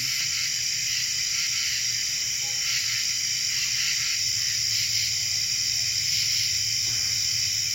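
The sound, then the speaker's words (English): A dense, unbroken chorus of crickets at a campsite fills the night air, a steady high-pitched shimmer with a faint low rumble underneath and no one speaking. “Why are crickets so scary?”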